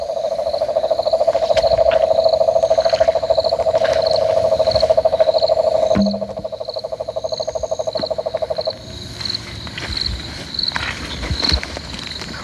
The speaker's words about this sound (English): All right, we're uh, just uh, slowly combing our way around another one of these water bodies. Man, there is some uh, cane toad calling action going.